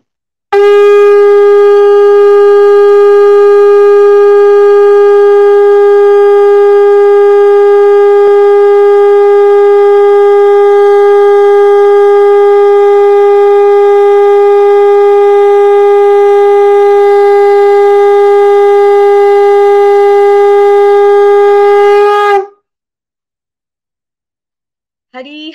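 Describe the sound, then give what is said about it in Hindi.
A conch shell is blown before an aarti at a Shrimad Bhagavatam week gathering, in one long, loud, unbroken blast. The steady, horn-like tone is rich in overtones and holds for about twenty seconds before cutting off abruptly. No one speaks. “आपका शंखनाद ना हो और आपके आपके भी श्रीमुख से हम आरती हम ना सुने तो हमारे सबका दिन कंप्लीट नहीं होता”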